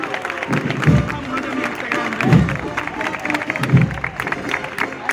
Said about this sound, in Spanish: Arranca Chiclana a aplaudir.